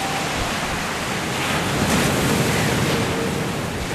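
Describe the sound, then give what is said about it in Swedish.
Steady roar of large ocean waves breaking, with gusty wind buffeting throughout; a loud, continuous wash of surf swelling slightly near the middle, no voices present. “Och, och, jag tror på något sätt när du känner vind och de stora vågor att man känner så, sån frihet och självständighet.”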